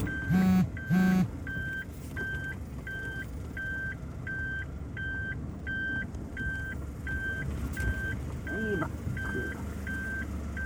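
A car reversing as it arrives home: its reversing warning chimes steadily, a high-pitched beep repeating at an even pace over low engine rumble, after two short, loud, low-pitched tones at the start.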